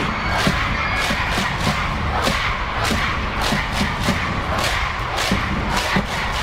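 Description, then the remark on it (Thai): At a sports match between a red team and a purple team, the rival cheering sections of both colours shout and cheer for their teams continuously with no pause, loud and dense, with rhythmic bursts of chanting and sharp thumps punctuating the roar. “ทางสนามกองเชียร์ทั้งสองสี ต่างก็ไม่มีใครยอมใคร ตะโกนเชียร์ทีมของตนอย่างสุดเสียง”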